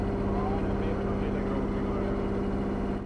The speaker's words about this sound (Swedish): Att banda vårt samtal under gång är som ni hör inte görligt. Motorn är väl högljudd för det.